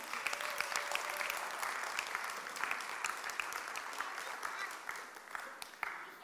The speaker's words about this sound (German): Die Kinder haben es uns vorgespielt. Die Geschichte vom Abraham. Haben sie super gemacht. Nochmal extra Applaus für die Kinder.